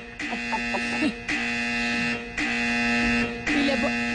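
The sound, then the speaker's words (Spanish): A loud, harsh electric buzzer horn blares in four sustained bursts of about a second each, separated by brief gaps, with faint voices murmuring underneath. “le, hemos puesto esta chicharra porque queríamos tener una respuesta”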